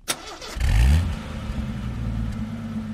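A car engine starts with a sharp crank, then surges into a loud, deep revving acceleration before settling into a steady rumble, for a car trip across the United States to the east coast.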